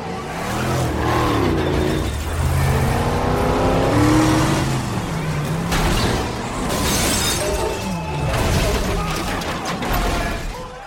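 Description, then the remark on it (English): At a demolition derby, a car engine revs loudly, its pitch climbing, then a heavy crash with shattering, crunching impact noise as the car smashes through the side barrier. Loud and busy throughout, with possible crowd noise from the stands underneath. “Roman revs his engine and crashes a car through the side barrier.”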